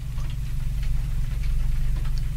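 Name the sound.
clock ticking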